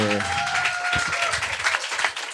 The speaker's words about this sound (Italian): Adesso abbiamo fatto una chiacchierata tra amici, però noi abbiamo una stima enorme di lui e quindi fategli un applauso perché il fatto che